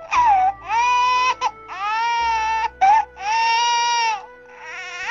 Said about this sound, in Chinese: 哇的一声，孩子哭了出来，然后就会发烧，说胡话，从此便得了病。